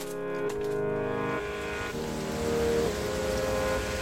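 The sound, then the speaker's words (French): A loud, continuous rush of water in the laboratory area of a historic aquarium, not a waterfall or river, steady throughout with a droning, pump-like hum underneath and shifting tonal whines; no one speaks. “Alors non, ce, que l'on entend, c'est pas une cascade ni une rivière sauvage. Nous sommes bien dans le labo.”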